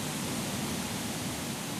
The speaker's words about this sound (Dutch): Hoe ga ik überhaupt naar de overkant van deze beek?